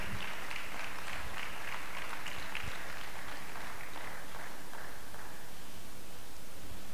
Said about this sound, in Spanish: Vamos a dar un aplauso al Señor fuerte